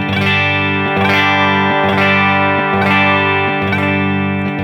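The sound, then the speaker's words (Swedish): Loud, heavily distorted electric guitar chords, played as full chords through effects, ring out in a steady rhythm, struck about once a second, each chord sustaining thickly into the next, with no voices. “Om du spelar hela ackord istället så blir det...”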